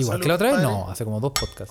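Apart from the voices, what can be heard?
glasses clinking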